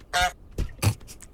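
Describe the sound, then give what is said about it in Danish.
A goose in a video game honks three times in quick succession, harsh and nasal, each honk short and loud, with brief gaps between them and no talking. “prøv at høre gåsen her.”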